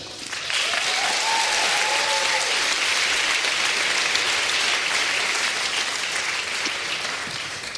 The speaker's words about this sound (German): und wir holen unter Tosen einen Applaus auf die Bühne.